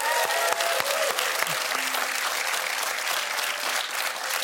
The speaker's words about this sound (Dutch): Geef hem een groot applaus.